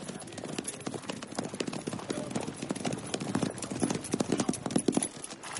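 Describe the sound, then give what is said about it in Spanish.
Horses' hooves clop steadily on hard ground, a rapid, busy rhythm of overlapping hoofbeats from several riders approaching an archery camp, growing slightly louder toward the end, with no talking. “Se acercan jinetes al campamento de tiro.”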